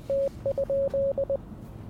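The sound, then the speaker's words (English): A telegraph sends Morse code: a steady, clear tone beeps out a quick run of long and short pulses, dashes and dots, over faint background hiss, with no voices. “which communicates by using a series of dots and dashes. That's the sound you hear in the background.”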